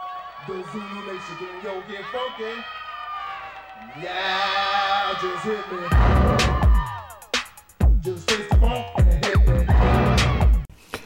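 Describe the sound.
A 1980s electro-funk hip-hop track opens with layered chanting voices and synth tones, then a loud, punchy drum-machine beat with heavy bass kicks and sharp claps takes over.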